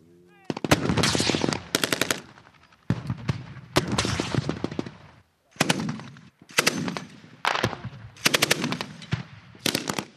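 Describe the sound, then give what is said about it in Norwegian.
Loud bursts of machine gun fire rattle in quick succession, about eight volleys separated by short gaps, with heavier cannon and mortar blasts booming among them and echoing outdoors, at the training ground of the Russian Baltic Fleet's 5,000-strong marine brigade near the Polish border in Kaliningrad. “Kanonene og bombekasterne drønner mens mitraljøsene smatrer her helt ytterst mot grensen til Polen, på øvingsfeltet til den 5000 mann sterke marinebrigaden som tilhører den russiske Østersjøflåten med hovedbase i Baltisk”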